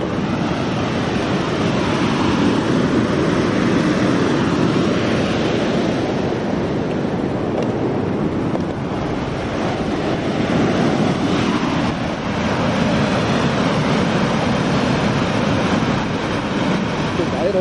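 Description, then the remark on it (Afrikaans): A loud, steady roar of rushing river water pouring over a waterfall, its flow risen this morning after several days of lower water levels, continuous, with a dense churning texture that barely changes throughout. “En ek sien dit nogal baie opgetel vanoggend toe ek weer gekyk het na die water se sterre se se vloei, se hydroloog, hoe die sterre begin loop.”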